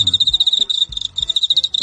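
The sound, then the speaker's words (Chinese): A field cricket, the kind called zichong in Beijing and sold on the market as youhulu, chirps in rapid, steady pulses, a bright high-pitched trill repeating over and over with only brief gaps, fairly loud and alone without any voices. “这个就是我刚才说的，嗯，北京的紫虫，也叫咱们市面上叫油葫芦。”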